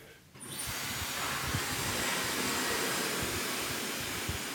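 A hair dryer switches on almost immediately and blows freshly cut hair dry with a steady, loud whoosh of air that holds constant to the end, with no one speaking.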